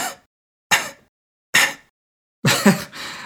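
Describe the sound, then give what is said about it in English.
A voice imitates the tinny, airy drums of a song's choruses and bridge with three short, breathy bursts spaced evenly apart, followed by a longer, fuller burst. The sound is fairly loud and has no other sound behind it. “It's this almost tinny or airy sound, and it sort of sounds like this.”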